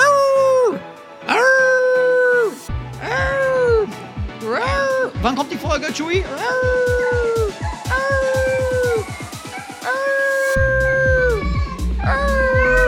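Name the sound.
dog barking and howling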